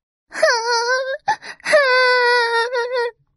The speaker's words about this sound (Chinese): 三公主躺在船板上哭了起来。 咦，怎么有哭声？